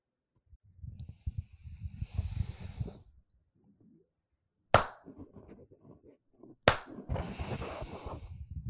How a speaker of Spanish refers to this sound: hacemos palmas.